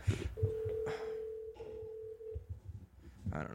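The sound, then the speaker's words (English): An outgoing phone call to fighter Michael Bisping rings: one steady electronic ringback tone holds for about two seconds over faint background clatter, then stops, with no one answering yet. “So we're calling Michael Bisping, one of the best fighters alive.”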